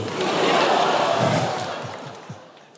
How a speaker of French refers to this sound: Eh, on va faire un truc, tous ensemble, Lausanne. À trois, on crie ensemble, en chœur, on n'est pas à Montreux ici.